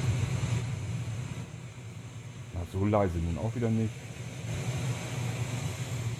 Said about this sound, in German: Brandung Funktioniert doch noch. Eieieiei, jetzt ist das natürlich ein bisschen laut, unsere Brandung. Mach mal ein bisschen leiser an den Lautsprechern.